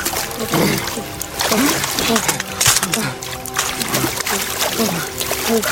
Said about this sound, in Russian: Не раздеваясь, парни входят в озеро.